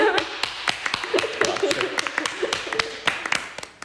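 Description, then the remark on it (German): Quick, irregular hand clapping from a small group, lasting a few seconds, with faint voices murmuring underneath. “Wieso haben wir jetzt klatscht?”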